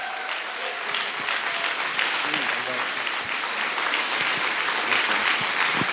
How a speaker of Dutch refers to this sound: Ik wil je vragen om gewoon echt een heel hard City Life Church applaus te geven